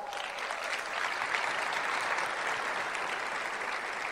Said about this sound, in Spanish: Den su fuerte aplauso.